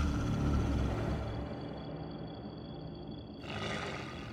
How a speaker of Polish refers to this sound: Wielkie stworzenie wzniosło się na tylnych łapach i wydało przeraźliwy ryk.